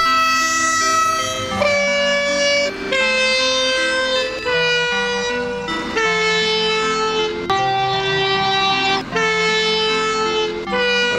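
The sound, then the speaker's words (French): Pachelbel's Canon played on sampled locomotive whistles (train horns): a slow, stately melody with several loud, sustained whistles blowing together in chords that shift every second or two, with no voices. “Mais il est joué avec quoi Eh ben, c'est des sifflets de locomotive.”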